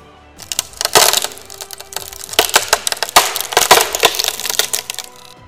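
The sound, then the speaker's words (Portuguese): A lock being forced with a mechanical arm and broken open so a door opens: loud cracking and splintering with a rapid burst of sharp snaps and grinding crunches lasting several seconds, with no one speaking. “é, quebrar a fechadura e a Aí, porta se abre.”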